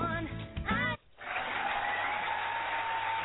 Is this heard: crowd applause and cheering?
yes